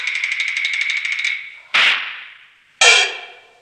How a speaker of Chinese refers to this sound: 不管风吹雨打，暑热严寒，车载万斤重，马行千里远，稳坐车头，一挥鞭子驾。